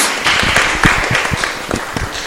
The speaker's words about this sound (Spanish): por favor, aplausos para ella, para los ánimos.